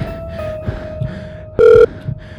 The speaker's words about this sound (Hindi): अरे यार ये साला फ़ोन भी नहीं उठा था फ़ोन तो उठा दे साले फटी पड़ी है मेरी यहाँ फ़ोन जल्दी से पिक कर